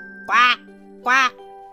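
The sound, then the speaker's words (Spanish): A voice imitates a duck, giving two short, nasal quacks about three-quarters of a second apart, loud, over a soft, steady musical drone. “¿Te lo digo como los patos y los gallos?”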